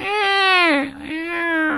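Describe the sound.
A voice mimics a newborn's wailing cry, two drawn-out, strained bawls with a brief catch between them, loud.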